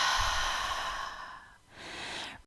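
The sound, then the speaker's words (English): After a deepest inhale held at the top, a long, deep breath is pushed out through an open mouth, a soft rushing sigh that fades, followed by a quieter second breath. Clear, with no talking. “And open your mouth, exhale out.”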